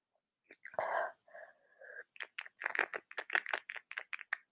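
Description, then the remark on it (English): A wet snuffling sniff through a blocked, congested nose, then a string of quick, breathy hissing bursts that sound like whispering or soft nasal snorting, all quiet. “Oh my god, sorry, that's my nose. My nose is like so plugged.”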